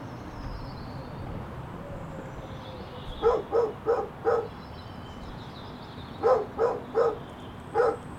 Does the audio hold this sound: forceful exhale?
no